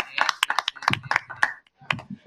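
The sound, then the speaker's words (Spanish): Scattered applause from a small group for a Dominican guest in Spain, a poet, author and former councillor: sharp, irregular claps in quick succession, fairly loud, with people's voices talking over and between them. “Mira, aquí, mira, a ti que te apasiona la, ah, poesía, ha escrito varios libros, o sea, estamos hablando con un intelectual, señores, en España, un dominicano, aplauso para Que fue concejal también.”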